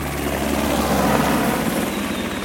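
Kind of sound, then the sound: vehicle, helicopter flying overhead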